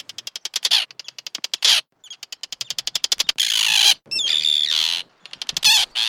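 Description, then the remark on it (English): Small birds caw and chatter right against the microphone as they attack it in waves, dive-bombing the recordist who holds it overhead; loud and harsh, in rapid bursts of clicking calls broken by brief pauses and longer raspy squawks, with no one speaking. “As a result, I got some absolutely fantastic bird vocalizations.”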